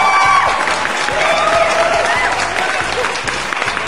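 A crowd claps steadily and loudly for several seconds, with scattered whistles and cheering voices rising over the dense patter of hands.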